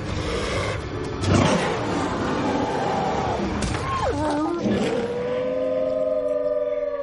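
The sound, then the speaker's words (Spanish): A giant, hungry wolf growls low and rough as it follows its prey into a narrow mountain gorge, a steady rumbling snarl that rises briefly, then gives way to a drawn-out, wavering whine-like tone, fairly loud throughout. “El lobo le sigue hambriento de carne.”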